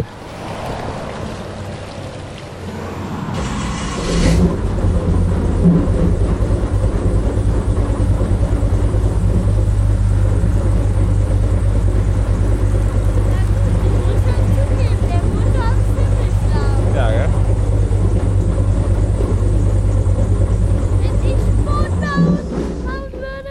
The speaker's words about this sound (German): Die Airbots sind so richtig laut. Die haben hinten einen gigantischen Motor, dahinter dann wieder ein Propeller. Der Propeller ist in so einem Gittergehäuse drin.